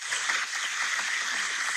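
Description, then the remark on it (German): Sustained applause, a 'Large Indoor Crowd' sound effect found on Spotify and played from an iPhone: a dense, even wash of many hands clapping at once at a steady loudness, with no speech over it. “Das ist ein Applaus, den Tim auf seinem iPhone gegoogelt aber, oder bei das Spotify ist Large, gefunden. Das ist die Large Indoor Crowd.”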